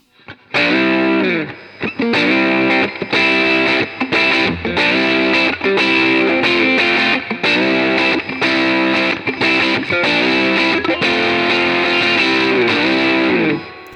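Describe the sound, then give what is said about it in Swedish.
A loud electric guitar run through a Fuzz Overdrive pedal set to high-pass mode, with a thin, bass-cut tone, playing a choppy riff of repeated distorted notes and chords for about thirteen seconds, with no talking. “Och, och jag tycker det låter coolt med Fuzz Overdrive alltså.”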